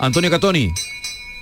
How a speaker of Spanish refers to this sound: Pues este sonido que estás escuchando es el de la campana de los niños carrancanos que como su propio nombre indica, pues arrancan la procesión del corpus o los niños de la sacramental del Sagrario, que llevan esa campana.